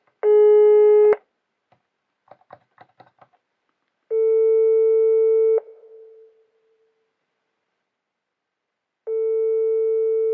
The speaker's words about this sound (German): Und diese Festnetze und Handynummern, die man auftreiben kann, schellen ins Leere, auch wenn wir immer wieder und zu allen Tageszeiten versuchen. Das ist, hoffnungslos.